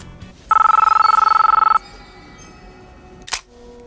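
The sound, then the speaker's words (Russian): A telephone rings with one loud burst of rapid, trilling electronic chirps lasting just over a second, as Morpheus calls Mr. Anderson in the film The Matrix, followed by quiet and a brief click a moment later. “А в «Матрице» с опозданием всего лишь на минуту Морфеус звонит мистеру Андерсону, которого отныне все будут называть совершенно другим именем.”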